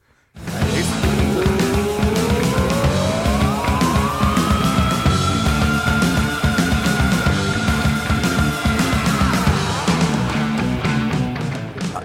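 A high-pitched vocal scream sweeps upward and holds a long, siren-like wail over loud, dense rock music with pounding drums, then slides back down near the end.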